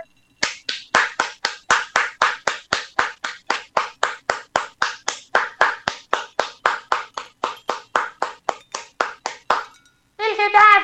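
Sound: applause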